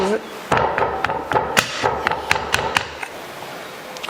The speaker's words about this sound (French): Mais on va, on va la taper quand même. Hein. alors l'idée, c'est de la taper pour faire remonter des bulles d'air, hein, pour éviter que quand on va démouler, on ait euh, une, mauvaise surprise.